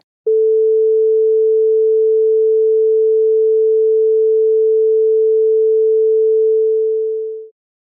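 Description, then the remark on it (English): A steady, pure sine tone held at the pitch A for about seven seconds, loud and unwavering, starting abruptly and fading out quickly at the end with nothing else audible. “and here's a pure sine tone A.”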